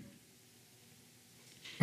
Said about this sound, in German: du musst husten richtig, weil dir die Worte alle nicht mehr richtig aus dem Mund pullern wollen.